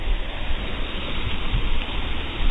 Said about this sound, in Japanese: えー、会津若松、お役園、お役園というところに来てます。せせらぎの音が聞こえますでしょうか。